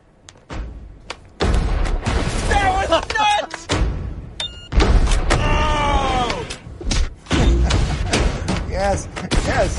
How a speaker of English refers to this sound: so let's see what we have here in the name of explosions. What do we have?